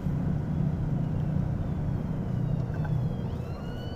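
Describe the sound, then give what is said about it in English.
An ambulance siren wails faintly over a loud, steady rumble of road traffic, its rising and falling tone drifting past. “oh, ambulance”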